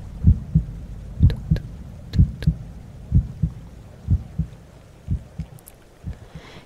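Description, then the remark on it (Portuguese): A steady heartbeat thumps in low, muffled lub-dub pairs, about one beat per second, clear with no voices, just a faint background hiss between beats. “Relaxe até conseguir escutar as batidinhas do seu coração.”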